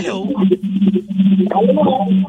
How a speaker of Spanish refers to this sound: ¿Me puede bajar el volumen del radio, por favor?